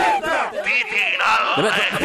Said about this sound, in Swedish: Det är som en stor folkmassa här utanför fönstret.